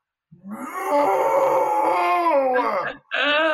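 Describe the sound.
A person imitates a dog howling: one long, loud, wavering vocal howl lasting over two seconds, breaking off briefly before a second howl starts.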